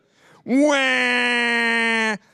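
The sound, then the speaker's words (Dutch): A single loud, sustained wail from an adult voice, mimicking a crying baby: one steady, drawn-out 'waaah' lasting nearly two seconds, heard on its own. “En het meest verschrikkelijke wat ik vond is dat als een van mijn broertjes of zusjes begon te huilen.”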